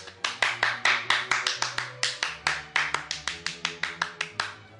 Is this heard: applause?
yes